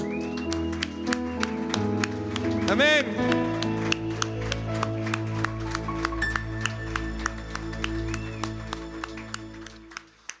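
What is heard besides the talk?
audience applauding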